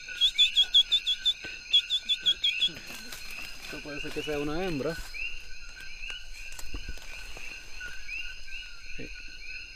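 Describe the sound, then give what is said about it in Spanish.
A chorus of melodious coquí frogs chirps in rapid, high-pitched pulsing bursts with a steady background of overlapping calls, while a person speaks briefly over it. “Y le llaman el coquí melodioso porque usualmente forma coros, grandes coros.”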